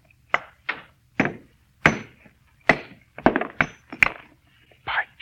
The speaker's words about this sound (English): Nothing but a stone. All I'm going to do is try and break it along this fissure. See, I had a hammer on this stone. Ah, yeah. What wonder if the stone break. Almost solid metal. I'll try.